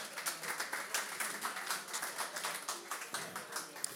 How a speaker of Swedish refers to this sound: Vi ger Lovren en applåd också för fan.